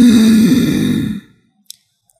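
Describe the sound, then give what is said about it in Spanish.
A person imitates an infant's breath-holding spell after crying: one strained, voiced catch of breath lasting about a second, fairly loud, then sudden silence broken by a couple of faint clicks. “Y es cuando, después de llorar, el bebé se queda pegado así.”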